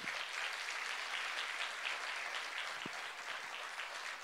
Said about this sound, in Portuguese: Dá uma salva de palmas a Jesus.